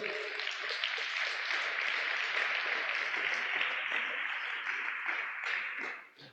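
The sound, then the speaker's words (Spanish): A church audience applauds for God, a dense, steady wash of many hands clapping at even loudness for several seconds before tapering off at the end. “Pues dale un aplauso a Papá Dios.”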